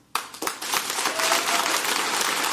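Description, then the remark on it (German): An audience breaks into applause to vote on an option, starting with a few scattered claps and quickly swelling into a dense, steady burst of clapping that stays loud throughout. “Einmal klatschen, wer, wer für ihr das sagen ist.”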